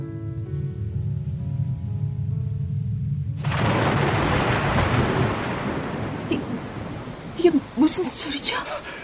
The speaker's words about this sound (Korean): 폭풍이 몰려오고 있나 봐요. 어, 포, 폭풍이요? 엄청난 폭풍이에요.